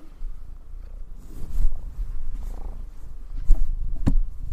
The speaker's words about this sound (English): the kitty just jumped up right in front of the mic. Sorry if you guys hear walking around. Wow, that just completely erased all thoughts from my head that the kitty just just jumped right up onto the table. Um, can you guys hear her purring?